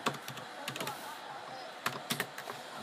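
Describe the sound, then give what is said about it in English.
Rapid clattering keystrokes on a computer keyboard, irregular bursts of clicks, with a few louder taps standing out near the end. “I'd be faster at typing if I knew how to spell, but I'm still fast at typing.”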